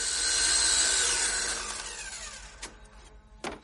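A power drill drills into a ceiling from a scaffold, grinding loudly with a whining tone that slides lower as it winds down, followed by two sharp knocks a moment apart.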